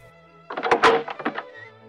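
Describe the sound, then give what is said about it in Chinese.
The front door of a house opens with a cluster of knocking clunks and rattles of the latch and handle, lasting about a second, then a faint low hum remains. “点点说着，打开了房子的前门。”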